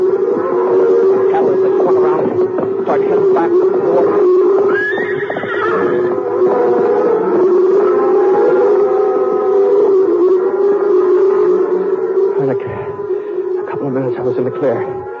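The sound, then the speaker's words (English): A cattle herd stampedes out of control through a gorge in a loud, continuous rush of pounding hooves, with animal bellows and whinny-like cries rising over the churning rumble for the whole stretch. “The herd was still out of control. charging out the other end of the gorge”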